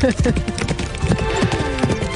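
Horse hooves clip-clop in a quick, steady rhythm on a hard surface, fairly loud over a busy, tonal background.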